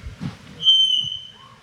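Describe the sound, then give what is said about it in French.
A single loud, piercing high-pitched whistle rings out steadily for under a second, then fades, over faint low room noise. “Alors, euh, bon, euh, déjà, le sifflement avait une question”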